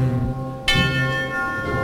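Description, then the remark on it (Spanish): A church bell rings out with a bright, clear strike partway through, its tone hanging and slowly fading over a steady, sustained ringing already underway, during the procession of the Señor de la Salud de los Gitanos advancing among orange trees on Calle Verónica. “entre la agrupación musical esas campanas que suenan a solemnidad con el Señor de la Salud que avanza ya entre naranjos de la calle Verónica.”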